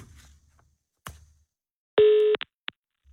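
A telephone ringback tone sounds while a call to Glamsbjerg is being placed: one steady electronic tone of about a third of a second, then two short blips, clear with no one talking.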